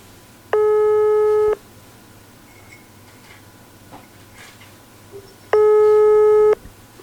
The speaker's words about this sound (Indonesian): Tutut. Nggak diangkat guys. Nggak diangkat guys.